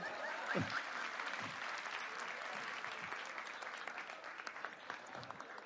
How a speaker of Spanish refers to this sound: un aplauso, por favor, un aplauso.